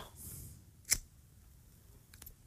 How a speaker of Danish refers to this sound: Og så tænder jeg en cigaret for ligesom at understrege... Og det er god lyd i radio.